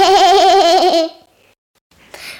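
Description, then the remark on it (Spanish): A person imitates the goat 'cabra cabratis' from a Spanish-language children's story with one long, quavering bleat, loud, followed by a short pause and a faint breathy sound. “Estaba la cabra cabratis subida a la peña peñatis. Me, me.”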